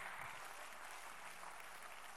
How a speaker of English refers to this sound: You're clapping and singing in the house right now.